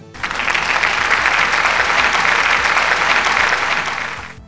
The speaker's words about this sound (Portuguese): Uma salva de palmas virtuais.